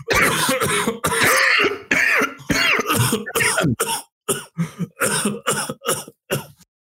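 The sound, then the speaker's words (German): A loud fit of coughing and throat clearing, starting in dense bursts and then breaking into a rapid series of short, separate coughs that trail off. “So, so, so, immer so ein bisschen so ein Frosch im Hals, so.”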